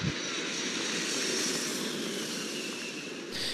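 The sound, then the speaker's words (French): A steady, loud airplane engine roar fills the moment, a broad continuous whoosh with a faint high whine, holding even before briefly shifting near the end. No one speaks. “alors prends tes lunettes de soleil, ta chemise d'été, un petit cocktail avec modération et embarquons dans l'avion de cet épisode.”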